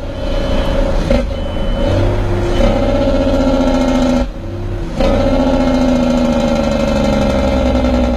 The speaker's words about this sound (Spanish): El nerviosismo invadió a mi padre cuando llegamos a los 95 y el camión comenzaba a perder estabilidad.